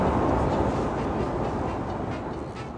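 A subway train runs with a steady, dense low rumble and roar, holding an even loudness throughout with no distinct clacks or breaks, and no voices over it.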